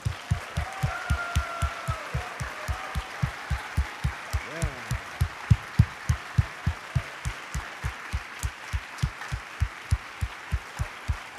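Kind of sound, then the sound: crowd, audience clapping hands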